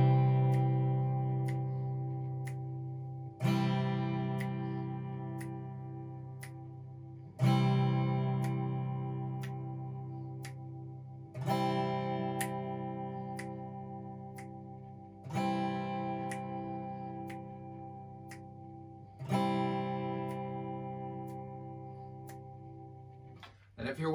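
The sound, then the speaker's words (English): Guitar chords strummed one at a time in a slow, steady rhythm, each ringing out for about four seconds before the next strum; six chords in all, with no one talking. “watching this video back, when you're listening to that bit, those chords, or if you've recorded it yourself, just take little sections”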